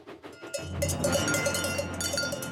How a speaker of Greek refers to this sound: Μετά ο Τζέιμς άκουσε από μακριά ήχο κοδουνιών.